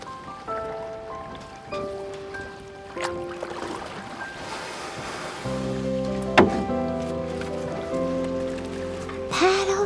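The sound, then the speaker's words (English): Steady watery wash and lapping around a boat at sea, heard beneath sustained musical tones that shift in pitch, with a brief splash-like burst partway through. “You and I out to sea.”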